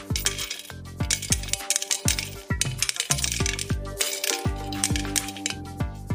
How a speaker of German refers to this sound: ich mache jetzt ein Phrasenschwein auf und da zahlst du sofort 5 Euro rein